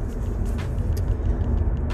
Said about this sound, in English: And I'm in my car and I'm on my way to work, so I hope you guys can hear me okay.